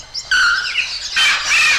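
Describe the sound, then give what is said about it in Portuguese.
A startled flock of birds, frightened by the blast of a hunter's carbine and flying off all at once, squawks loudly in two harsh, overlapping bursts of high, rasping calls, with no talking. “Ao ouvir aquele estrondo, a passarada assustada voou toda ao mesmo tempo numa louca debandada.”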